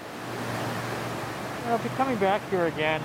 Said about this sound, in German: Noch immer kann er schwer ausdrücken, was in ihm vorgeht, wenn er im Hall des herabrieselnden Wassers um die tiefen Gruben geht, in denen einst die Türme standen und die heute Gedenkstätte sind